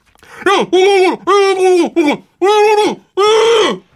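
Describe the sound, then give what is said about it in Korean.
A person screams through a covered mouth while watching a football match against France on TV, producing about six muffled, wordless bursts in quick succession, each sliding downward in pitch, loud. “이름하여 입맞고 네, 소리 지르기.”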